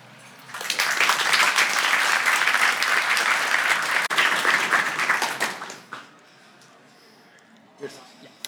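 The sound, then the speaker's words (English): An audience claps for Caspar Hallmann before his lecture about insects. It claps steadily for about five seconds, a dense, loud, even patter of many hands that quickly fades away, leaving near silence with a faint stray sound near the end. “But now it's time to give a heart warm of applause to Caspar Hallmann.”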